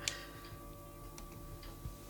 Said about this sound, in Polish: Och, mój zegar się odzywa. Tak jest. Mały przerywnik dźwiękowy.